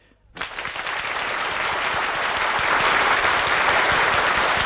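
A crowd bursts into loud, sustained applause after a brief quiet moment, dense overlapping claps holding steady at full volume until the end.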